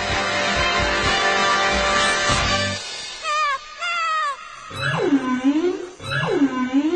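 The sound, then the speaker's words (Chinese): A humpback whale calf calls for help: high whistling sweeps, then two loud, swooping moans that dip and rise in pitch, following a few seconds of steady rushing noise. No one speaks. “糟糕，那是座头鲸宝宝在求救的声音。”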